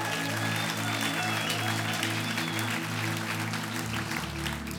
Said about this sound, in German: Hey, wie gut war der Worship gewesen heute Morgen, oder? Yes! Komm, können wir dem Team einen Applaus geben?